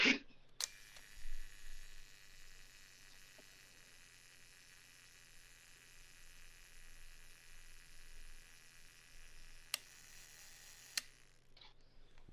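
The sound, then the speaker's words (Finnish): A mechanical Rollei camera self-timer whirs steadily for about nine seconds between sharp clicks, then releases with a couple of crisp shutter snaps near the end. It is fairly quiet, with no voices. “rolleissa on kapitalistisia rappeuttavia toimintoja, kuten Vitkala mukaisin”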